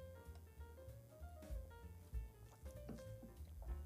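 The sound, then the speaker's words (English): Someone drinks water, with a few soft gulps and swallows spread over several seconds and a faint steady hum behind. No one speaks. “I'm gonna take a little water break.”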